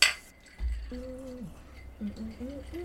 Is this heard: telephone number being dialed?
no